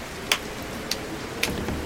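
Light rain falls, with a few distinct drops tapping sharply at irregular intervals over a soft, steady background hiss. Fairly quiet, and no one is speaking.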